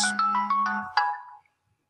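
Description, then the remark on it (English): A mobile phone ringtone chimes a quick run of bright, bell-like electronic notes over a steady low hum, then a final ringing note fades out after about a second and a half. “One of the reasons why I get to do the timer is because I know to put my phone on silent.”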